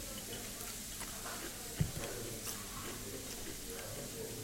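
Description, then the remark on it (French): Quiet crunching as something crisp is bitten and chewed, with one sharper snap partway through and small scattered crackles around it. No one speaks. “croustillant.”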